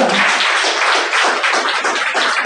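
A crowd at a worship service applauds the Lord steadily and loudly, many hands clapping together in a dense, sustained burst that fills the whole moment without pause.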